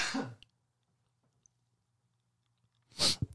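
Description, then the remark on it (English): A single sharp, loud sneeze bursts out after a few seconds of near silence, preceded at the start by a brief rough throat-clearing sound. “I had to sneeze.”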